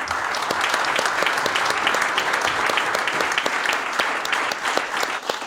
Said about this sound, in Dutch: Hartelijk applaus voor onze gasten.